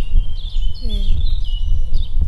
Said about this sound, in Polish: W pobliżu przychodni słychać wróbla